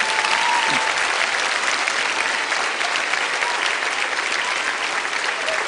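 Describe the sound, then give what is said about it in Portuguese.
A church audience applauds people as they leave, loudly and steadily, a dense wash of many hands clapping at once that holds at an even level for the whole stretch, with no voices standing out. “Vamos aplaudir forte, por favor.”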